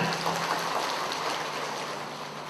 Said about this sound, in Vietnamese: cảm ơn xin một tràng pháo tay